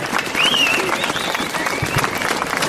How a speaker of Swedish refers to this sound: en varm applåd för honom.